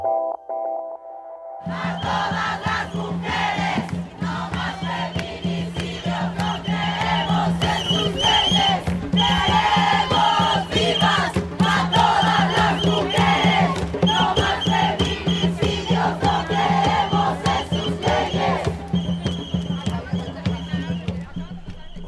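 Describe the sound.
A large crowd chants and shouts together at a Sunday protest march, a loud, dense wall of voices that swells steadily after a brief quiet opening, with sharp percussive hits running through it.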